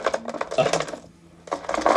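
Dice clatter across a hard tabletop in two quick bursts of sharp, rattling clicks, separated by a brief pause, fairly loud; the roll comes up 15.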